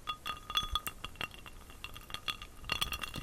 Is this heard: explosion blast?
no